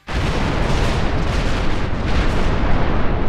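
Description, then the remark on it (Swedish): A rocket explosion: a sudden loud onset swells into a dense, sustained rumbling roar with deep booming low end and crackling texture, holding steady for about three seconds without any voices. “För Musk är det ingen katastrof om raketen exploderar på startplattan.”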